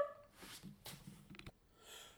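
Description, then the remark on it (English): A dog barks a few times in quick, irregular bursts, faint, with quiet background noise between the barks and no talking. “So apologies are uh, my son's dog obviously doesn't agree with that interpretation of the War of 1812 and finds it far more significant than, than we did.”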